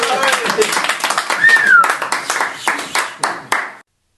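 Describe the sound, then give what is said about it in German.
Members of a club clapping during a prize draw with slips of paper, in a loud, dense burst with a few voices calling out, then thinning into several separate claps before stopping abruptly. “der Verein hat ein paar Mal noch geklatscht, bis alle Preise verlost worden sind.”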